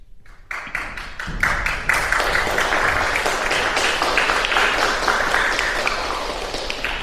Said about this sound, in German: Erst wird geklatscht.